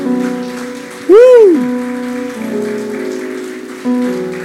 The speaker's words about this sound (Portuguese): Você pode aplaudir o Senhor bem forte?